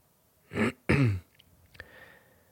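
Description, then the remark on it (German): A man clears his throat in two quick, rough bursts, the second slightly longer, followed by a quiet pause with only faint room noise. “Aha, sagte er äußerst intelligent, räusperte sich dann.”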